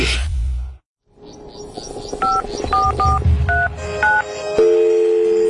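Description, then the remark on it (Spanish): A burst of noise cuts to silence, then a telephone is dialed to call a mother: about five short two-tone keypad beeps in an uneven sequence, followed by a steady electronic tone. “Estoy llamando para decirle que no voy a poder pararme a beberme el cafecito y estoy corriendo para la capital a legalizar mi arte en la Junta.”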